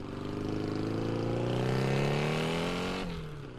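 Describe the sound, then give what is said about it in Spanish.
A loud outboard motor revs steadily upward in pitch for about three seconds, then abruptly drops off as the throttle is released; no water splashing or voices are audible. “es una moto carabela de los ochentas, no oigo el agua. O está fuera de borda”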